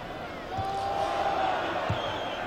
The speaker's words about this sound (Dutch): En die afronding kan ook op waardering rekenen van het aanwezig publiek hier in Rotterdam.